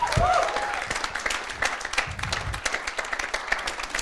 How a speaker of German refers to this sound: Er gibt dir mal einen fetten Applaus.